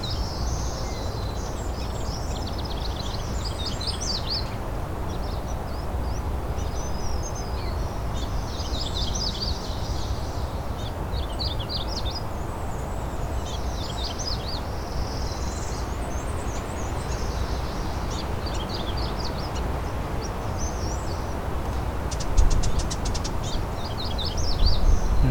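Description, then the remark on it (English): A ruby-crowned kinglet sings softly and continuously, thin high warbling phrases repeating over a steady rumble of wind or outdoor background noise, with no voices present. “So Ruby Crown Kinglet behind me here. So singing very quietly.”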